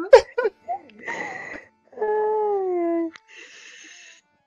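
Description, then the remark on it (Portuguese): Someone imitates a dog, giving a few short yelping barks and then a long, wavering howl, with bits of giggling mixed in. “Você tá latindo e ela fica vermelha.”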